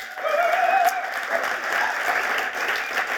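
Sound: audience applause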